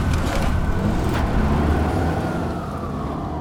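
A police car drives by loud, its steady engine and road roar filling the moment before easing off slightly toward the end. No one speaks.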